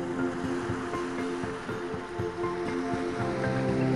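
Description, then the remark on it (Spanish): A steady, continuous wash of waves from a calm ocean rolls on without clear breaks, moderately loud, with a soft sustained musical drone humming underneath. “Escucha el movimiento de las olas.”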